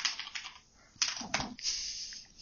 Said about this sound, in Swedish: Eh, är det PC? Det är PC-tangentbordet som hamrar här nu.